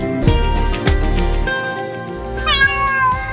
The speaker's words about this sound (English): Have you lost your cat? Uh oh, steady, kitty.